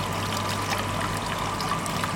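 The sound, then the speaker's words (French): A colour film developing machine for negative and positive film runs steadily in a photo lab, the film carried by a motor through chemical baths: a low electrical hum beneath a continuous wash of trickling, pouring liquid, even in loudness throughout with no voices. “c'est la machine qui tourne le plus au labo.”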